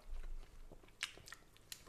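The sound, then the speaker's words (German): Biting and chewing of a soft pretzel-dough bread dumpling with leek, cooked for a quarter hour in water, with a few moist, smacking mouth sounds at an irregular pace. Nobody speaks. “Und ähm, ja, probieren wir doch einfach mal den Knödel, was er so kann.”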